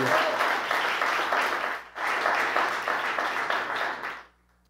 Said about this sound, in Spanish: Que no le hace un aplauso bien fuerte a, a ese Dios de tu misericordia.